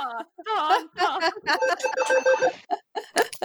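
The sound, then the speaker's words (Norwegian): A phone rings with an incoming call from Erna, its bright melodic ringtone repeating steadily while people talk and laugh over it. “Oi, nå kommer det viktige telefoner.”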